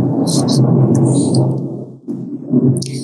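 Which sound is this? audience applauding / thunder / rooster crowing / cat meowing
thunder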